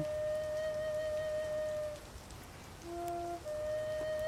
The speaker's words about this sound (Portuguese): A quietude foi interrompida por um som reverberante de líquido caindo do teto da caverna e atingindo uma larga piscina de água atrás dela.